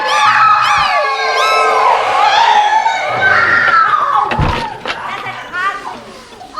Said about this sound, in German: Ihr seht, eine schreiende Uhr ist nichts Besonderes für mich.